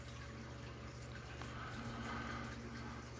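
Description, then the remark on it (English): A quiet sip of a drink taken for a dry mouth, a soft wet slurp of liquid lasting a few seconds with no talking. “Let ah, me take a little sip.”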